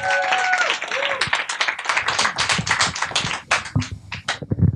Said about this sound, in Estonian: teeme talle julgustava aplausi ka niimoodi esimesena kohe lavale.